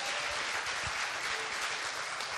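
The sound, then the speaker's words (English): A crowd claps steadily for Lee Milner, who is on the stage, in a dense, even wash of applause, with no voices breaking through and no letup across its couple of seconds. “Round of applause for Lee Milner.”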